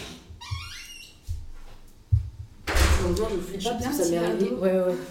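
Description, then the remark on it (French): A door that was not properly closed opens on its own with a rising, high-pitched creak, followed by a couple of low thuds as it swings shut, then people start talking. “Euh, attends, je reviens parce que je crois qu'il y a la porte qui s'ouvre toute seule.”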